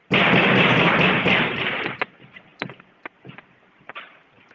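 Puff pastry dough being pounded on an aluminium counter from the centre outward to stretch it: a loud, dense rumble of rapid blows for about two seconds, then five or six separate sharp thumps at uneven intervals, with no talking.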